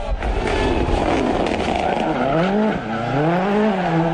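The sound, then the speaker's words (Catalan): A rally car roars past on a stage of the Catalunya Costa Daurada rally, its engine revving up and down in loud sweeping pitch changes, with tires squealing on the gravel and a steady rumbling backdrop throughout. “Això és el que es pot escoltar si us acosteu a un tram d'un rali.”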